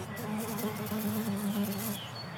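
A fly buzzes steadily for about two seconds, its low drone wavering slightly in pitch as it hovers, with no talking over it.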